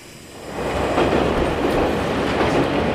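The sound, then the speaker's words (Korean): A subway train rumbles steadily along the tracks, a dense low roar with faint rattling, swelling slightly in the first half second and then holding loud and continuous, with no voices. “그냥 그날따라 유난히 지하철이 빨리 달리는 것 같다는 느낌만 생생했죠.”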